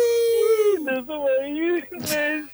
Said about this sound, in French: ne pleure pas.